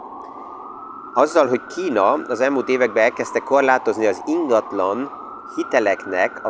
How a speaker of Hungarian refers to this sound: Itt most én kikapcsolom egy kicsit a felvételt, mert ez a sziréna, amíg itt van, addig ez zavaró.